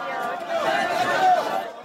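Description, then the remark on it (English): A dense, agitated crowd of demonstrators in Egypt clamors as the UN Secretary-General is being taken out, with overlapping raised voices and scattered shouts forming a loud, continuous roar of chaotic protest that swells slightly toward the end. “the demonstrators get more animated”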